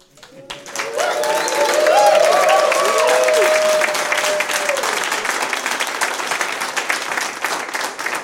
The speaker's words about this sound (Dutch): En? Applaus.